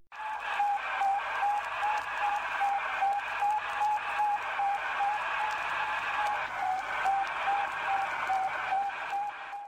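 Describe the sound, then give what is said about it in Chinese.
A recorded radio signal from the first artificial satellite, launched by the Soviet Union in 1957, picked up and recorded by the Judica brothers on their radio receiver: a steady series of short, evenly spaced high beeps pulsing through a constant hiss of static, with no voices, about ten seconds long. “这就是第一颗人造卫星它发出的声音，听起来很无聊，但是这段录音让兄弟俩非常激动。”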